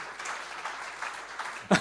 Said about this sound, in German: ja, gib mir mal einen Beifall.